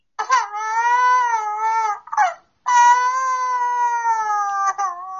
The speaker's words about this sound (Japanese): どうしたんだよ。赤ちゃんみたいな声出して。あ、赤ちゃんか。よしよし。